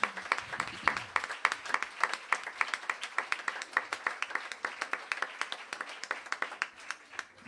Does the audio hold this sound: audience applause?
yes